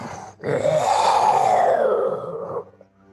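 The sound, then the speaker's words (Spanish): A person voices a single long, drawn-out grunt imitating the Culga king, a low rough growl that swells and holds for about two seconds before trailing off, with no other talk. “El rey culga hace un gruñido como...”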